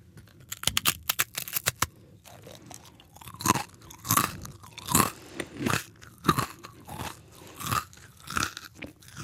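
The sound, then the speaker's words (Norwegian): Someone bites into a crunchy carrot, tasted as a student snack, and chews it loudly, with a burst of quick, sharp crunches followed by slower, irregular rhythmic crunching and chomping, no talking. “she can try a knoske gulrot.”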